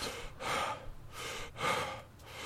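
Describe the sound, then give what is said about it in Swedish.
Heavy, breathless panting from a person who has been running for several minutes, with several rough, airy inhales and exhales in quick rhythmic succession, loud and ragged. No talking. “När jag stannade, flämtande och andfådd,”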